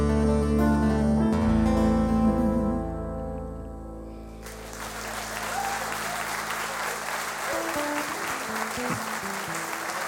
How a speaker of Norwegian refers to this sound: Applaus, applaus, applaus for uh